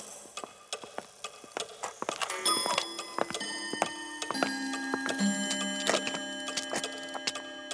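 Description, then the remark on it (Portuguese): Many clocks in the clock wing of an old palace tick at once in overlapping, uneven rhythms, sharp clicks layered close together, while sustained ringing chime tones rise in the second half. No voices. “Continuaram, passaram também pela ala dos relógios”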